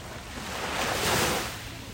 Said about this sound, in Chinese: 一段来自三亚的海浪声，请查收。